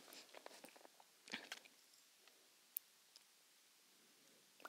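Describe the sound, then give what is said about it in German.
Mouth noises of a woman chewing with loud lip-smacking, irregular wet smacks and crunchy clicks in quick bursts, then sparser pops against a quiet background, with no talking. “Oh, sie schmatzt so doll.”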